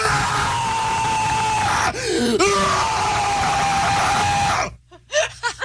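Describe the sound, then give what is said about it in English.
A man lets out a long, loud, raw primal scream lasting several seconds, done to let it out, briefly catching for breath midway, then it cuts off and a few short breathy sounds follow. “We'll do like a primal scream though, so just to kind of like let it out, like we're doing.”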